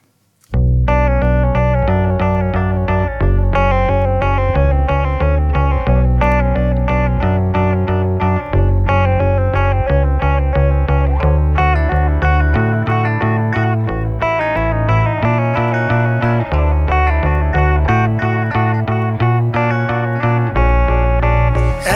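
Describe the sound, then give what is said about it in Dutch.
Loud, steady rock song by a singer-guitarist, led by a heavily effected, distorted electric guitar with chorus and echo, playing a dense chord pattern throughout, with no vocals yet. “Straks te gast in de rubriek Open Kaart is zanger-gitarist …. En hier gaan we naar hem luisteren met het nummer ….”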